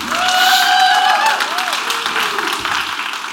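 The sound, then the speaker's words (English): An audience at Purpose Church claps loudly and steadily for Jesus, a dense wash of many hands, with voices whooping and calling out over the applause throughout. “If you're going to clap, clap for Jesus and make it loud.”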